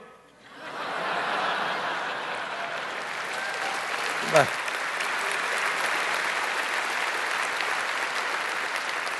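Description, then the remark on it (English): A crowd applauds steadily, a dense wash of clapping that swells in within the first second and holds at an even level throughout, with a faint chuckle or two and a brief thump midway. “They're applauding me.”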